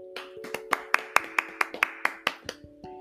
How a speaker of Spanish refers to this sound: Voy a dejar que ella se presente, pero antes un fuerte aplauso.